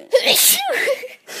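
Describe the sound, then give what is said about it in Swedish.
A single sharp sneeze, a quick intake then a bright explosive burst, trailing off into a brief voiced tail before a short silence. “Hallå, säg då prosit.”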